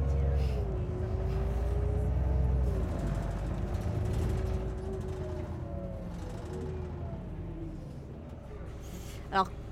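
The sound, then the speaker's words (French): Riding inside an articulated bus in Clichy-sous-Bois: a steady engine drone with rising and falling tones, constant rattling and creaking of the cabin, and a sharp click near the end. “Même si on, meurt peu à Clichy-sous-Bois, accrochez-vous quand même, parce que le bus accordéon, il malmène un peu ses passagers parfois.”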